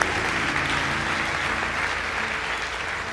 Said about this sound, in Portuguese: Mais uma vez, vamos aplaudir os papais.